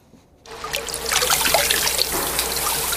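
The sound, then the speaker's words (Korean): Water is splashed and poured over in a bathhouse, a continuous bright, hissing wash of liquid that starts abruptly after a brief quiet moment and stays loud throughout, with no voices. “어, 물소리인데요. 목욕탕에서 물 끼얹는 소리랍니다.”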